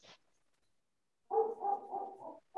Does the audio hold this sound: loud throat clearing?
no